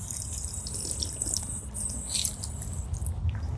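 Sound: drinking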